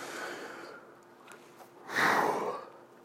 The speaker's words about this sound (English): Uh, yawn alert aisle three. Man, I knew that was coming. Like I said, I, I had not been sleeping too well over the last few days here.